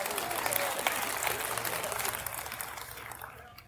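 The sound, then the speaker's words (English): An audience in a room applauds steadily, a dense wash of many hands clapping at once that holds for a few seconds and then gradually thins and fades toward the end. “Let's give it up for everybody in the room that's still young enough to hear that.”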